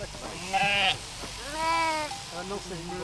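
Sheep bleat, one sharp high cry followed by a longer wavering bleat, with a few softer bleats trailing off over a low background murmur.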